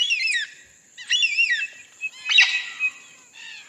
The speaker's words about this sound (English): This album consists entirely of Australian bird songs. there's just some absolutely incredible sounds being made by threatened Australian birds, and they need to be heard.